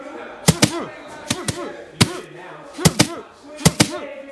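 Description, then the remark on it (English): A boxer warming up before a fight throws sharp, loud punches into boxing pads in quick one-two pairs, about nine hits in all with brief pauses between combinations, while a voice talks underneath. “Bang, hit this. One, two.”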